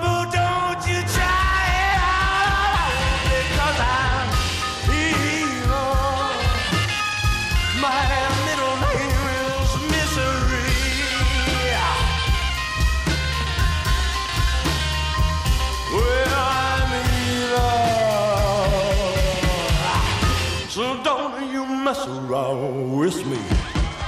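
A loud, driving rock and roll song plays throughout, with a gritty male voice belting and shouting over heavy bass, drums and guitars, ending with a brief dramatic pause and final hit.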